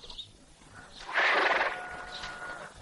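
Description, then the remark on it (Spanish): A horse at a cortijo, where grooms are tending the horses, lets out a single loud, shrill neigh that rises suddenly and then trails off, with faint hoof clops and stable noise around it and no one speaking. “Más tarde, en su cortijo, don Fulgencio acaricia a los caballos que los mozos están cuidando”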